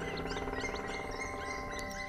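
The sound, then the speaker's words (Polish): A black woodpecker calls in a quick, repeated series of notes, moderately loud, with faint chirps of other small birds scattered in the background. “W tym momencie śpiewa właśnie dzięcioł czarny.”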